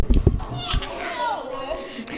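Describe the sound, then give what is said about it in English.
A short, drawn-out cat meow rises and falls in pitch, following a brief burst of muffled voice-like noise at the start. “that's a cat, not a goblin, you idiots.”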